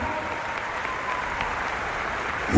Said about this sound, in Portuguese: A salva de palmas forte, gente. Vamos lá!